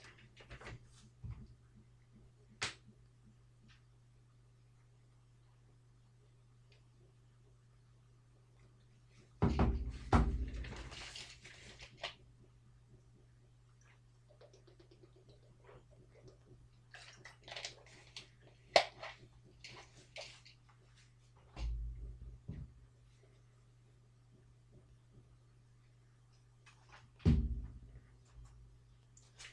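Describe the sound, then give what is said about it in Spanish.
Someone drinking water: a few soft knocks and clunks of a bottle or glass being handled, quiet sipping between them, over a steady low hum, with no talking. “Y, entonces bebo agua y ya, y ya pasamos con, con ese partido.”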